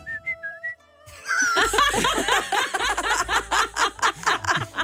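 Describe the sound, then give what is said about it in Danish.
A person whistles a few short, clear notes in quick succession, then the whistling stops and loud, bursting laughter from several people takes over. “Hvordan fløjter man sin alder?”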